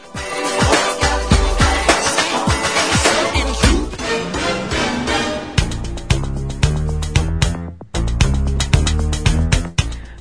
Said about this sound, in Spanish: Pero a ver, vamos, voy a poner un poquito de música y nos, nos dices cuáles van a ser los temas.